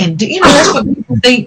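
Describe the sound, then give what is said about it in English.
A single sharp sneeze bursts out in the middle of someone talking, loud and breathy, and then the speech carries on. “Bless you.”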